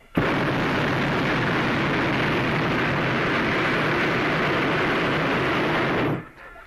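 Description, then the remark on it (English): A hot air balloon's propane burner fires in one sustained, loud roaring blast lasting about six seconds, starting abruptly and cutting off sharply, with no voices. “Burner coming on.”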